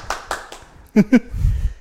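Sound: single hand clap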